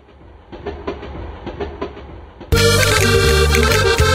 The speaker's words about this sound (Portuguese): Que isso, era o trem que tava chegando? Estação de trem?